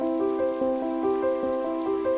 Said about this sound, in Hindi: बंबई की बारिश खास होती है